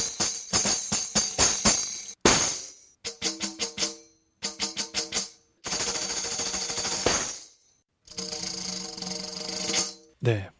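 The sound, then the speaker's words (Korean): A tambourine played fast in several loud bursts of rapid hits and bright, shimmering jingle rolls, separated by brief pauses, with no voices. “방금 마지막에 들은 템버린 아주 어려워 보이죠?”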